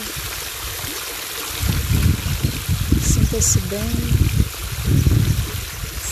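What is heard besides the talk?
waterfall flowing water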